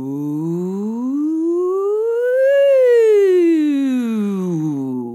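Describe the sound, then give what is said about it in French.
A single voice slides smoothly from a low pitch up to a high peak and back down again, a vocal siren exercise, in one continuous, steady glide lasting about five seconds. “Je vous ai déjà parlé des sirènes aussi. Donc, euh, de, de, prendre votre plus grave”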